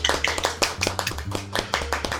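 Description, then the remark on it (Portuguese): Hands clap in a quick, slightly uneven run of sharp, crisp smacks for a couple of seconds, sounding like one person applauding on their own, with no one speaking. “Palmas para ele.”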